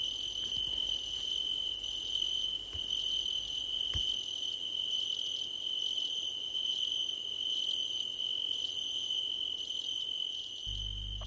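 Crickets chirp steadily in pulsing bursts, a high trilling chorus with a constant underlying tone, heard alone without any voices over a quiet background.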